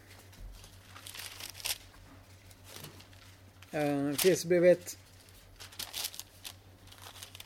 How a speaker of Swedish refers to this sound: Ja, det gick jag för långt här lite. De här slimline-biblarna, jag är inte van vid det. Jag bläddrar förbi liksom fyra brev här alltså.